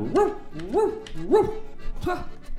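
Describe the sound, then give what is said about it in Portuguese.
A person barks like a dog, four loud woof sounds in a steady rhythm with short gaps between them, the last one slightly delayed. “E o cachorro? E o cachorro que tava aqui?”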